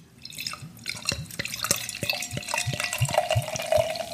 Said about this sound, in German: hört ihr das, wie das schäumt? Nee, das ist zischt. innen in meinem Glas.